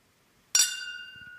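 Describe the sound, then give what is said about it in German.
Champagne glasses clink together once in a toast, a bright chime whose clear, high ring lingers and slowly fades, with a few soft low bumps near the end. “Leute, wollt ihr einmal hören, äh, unser Anstoßen hier?”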